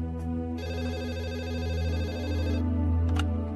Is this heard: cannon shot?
no